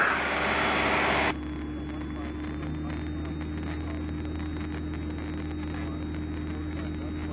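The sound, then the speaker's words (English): A light aircraft engine drones loudly and steadily as the pilot gives it some power in flight, its deep hum wrapped in constant rushing wind noise. “Just a bit, so I'll give it some power.”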